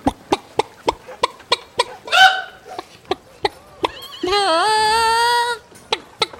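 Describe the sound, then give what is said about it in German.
A person imitates chickens with a rapid run of sharp, clucking bursts, a brief squawk, then a long, loud rooster-like crow before more clucks. “Für einen kurzen Moment habe ich gedacht, du bist wirklich ein Huhn.”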